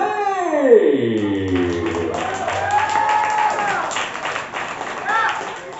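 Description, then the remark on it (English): An audience at a poetry evening claps steadily and continuously for the next poet, a dense wash of applause that holds for several seconds, with a voice calling out and sliding whoops rising over the clapping. “is an endurance clap, y'all.”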